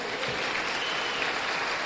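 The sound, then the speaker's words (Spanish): An audience claps together for God during a church service, a steady, sustained round of applause, a dense wash of many hands at moderate loudness with no voices standing out. “¿Puedes darle una frena de palmas a Dios?”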